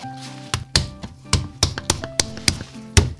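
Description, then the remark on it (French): A potter prepares a ball of clay in his 200-year-old workshop in Roussillon, Rhône-Alpes, France: about a dozen dull, slapping thumps land in an uneven rhythm, each short and fairly loud, over a faint steady hum, with no one speaking. “Donc là, je prépare de l'argile en fait.”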